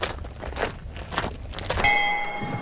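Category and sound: impact, footsteps on gravel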